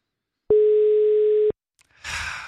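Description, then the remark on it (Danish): A phone call to Danish parliament member Lars Aslan Rasmussen: a single steady telephone ringing tone sounds for about a second, loud and clear over the line, then a faint click and a rush of noisy, muffled sound as the call picks up. “Det er typisk Lars Hasland ikke at tage telefonen.”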